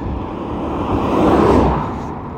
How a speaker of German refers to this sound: Ich werde mal kurz mein Handy ein bisschen drehen. Das bedeutet, man hört mich wahrscheinlich schlechter, aber es ist besser vom Wind geschützt.